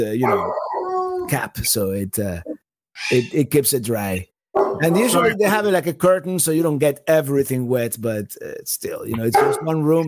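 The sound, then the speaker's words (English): A dog barks and yelps intermittently while a person keeps talking over it, the barking fairly clear but partly buried under the voice. “And um, I'm sorry for the dog barking.”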